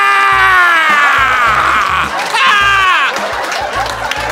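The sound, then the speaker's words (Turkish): A man imitates a pained scream with a loud, strained, wordless wail. It comes in two long drawn-out bursts over soft rhythmic low thumps. “Ben de telefonu kapatıp duvara bağırmaya başladım. Evet anlamlı bir şey de demedim bağırırken.”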